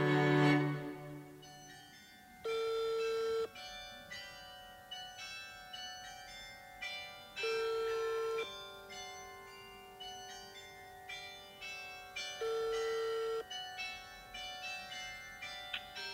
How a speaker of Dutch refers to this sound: En wanneer de kerkklokken in de achtergrond beginnen te luiden